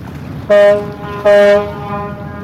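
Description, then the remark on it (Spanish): A ship's horn on a boat at sea, far from the coast, sounds two loud, deep, brassy blasts in quick succession, each short and followed by a lingering echo that trails off over a steady background rumble. “Pero podemos utilizar la bocina del barco.”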